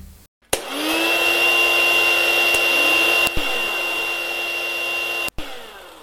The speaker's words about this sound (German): Das hast du erkannt klar, ein Föhn.